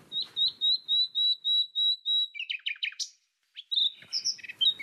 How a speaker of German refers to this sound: etwa 15 cm lang und um die 20 Gramm leicht. Die Nachtigall, berühmt für ihren Gesang.